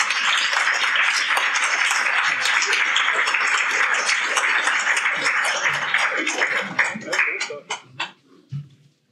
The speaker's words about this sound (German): Vielen herzlichen Dank. Applaus